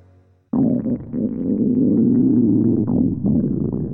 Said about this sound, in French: C'est mon ventre qui a gargouillé. J'avais très faim.